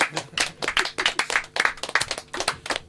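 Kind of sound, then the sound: crowd, hand clapping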